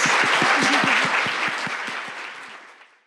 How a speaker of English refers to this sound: Huge round of applause.